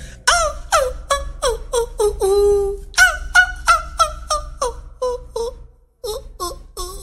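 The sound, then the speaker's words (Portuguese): A voice imitates a red-legged seriema call: a loud series of high, yelping whoops with a drawn-out wavering wail near the start, then faster repeated yelps that taper off after a short pause. “Ela disse que eu, fiquei, eu sou excelente para imitar a Sariema.”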